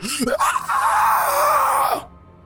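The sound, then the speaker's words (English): A voice imitates the scream of an insect-like monster with a needle-like proboscis and compound eyes, in a courtyard: a short rising yelp, then a loud, harsh, strained shriek held for about a second and a half before cutting off abruptly, alone. “And this, of course, scream alerts everything else in the courtyard”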